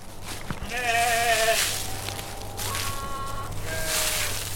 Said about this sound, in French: Vous voyez, on a une, quinzaine de moutons qui sont ici. C'est une race qui s'appelle Lande de Bretagne. ça fait partie des races locales.